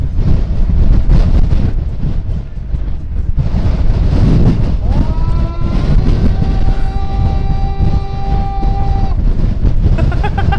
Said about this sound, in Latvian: Uh, Islandes skarbais vējš. Jā, jā.